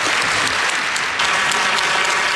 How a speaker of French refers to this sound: Un discours bien senti, applaudi avec une très longue ovation